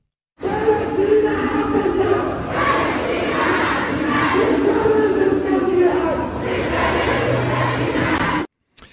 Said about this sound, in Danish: vi har øh, faktisk en lille lydoptagelse fra en demonstration i fredag, så vi lige kan blive klogere på, hvad det hvad det er for øh, nogle opråb, som øh, du øh, ikke kan lide, og, og måske føler dig utryg overfor. De, de lyder sådan her.